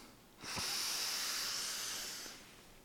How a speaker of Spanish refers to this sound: vas a intentar que sean diafragmáticas, ya sabes, hinchando un poquito la tripilla a la vez que entra el aire, al ritmo que yo te marque. Toma una respiración. Aguanta un poquito el aire y déjalo ir. Eso es. Vamos a tomar otra respiración.